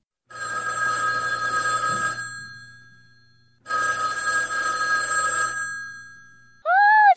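A telephone rings in two long bursts of steady electronic trilling separated by a pause of silence, followed by a short rising-falling beep at the end. It sounds clear, with no talking.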